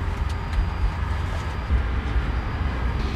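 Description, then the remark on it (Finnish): A steady, heavy rumble of a jet airliner's engines starting up, engine number one first, deep and constant with a faint high whine near the start, filling the whole clip with no voices. “Niin, nyt käynnistetään moottorit ja me seurataan tästä instrumenteista, että automatiikka toimii niin kuin sen pitää toimia.”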